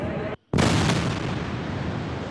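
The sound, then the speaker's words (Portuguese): A loud, sustained roar of a Hamas rocket barrage on Tel Aviv, Israel, and Israel's air defense system intercepting it, recorded by residents; a sharp blast bursts in after a momentary gap and rumbles on without letup. No one speaks. “Pouco depois, moradores gravaram uma chuva de mísseis e o sistema de defesa de Israel em ação.”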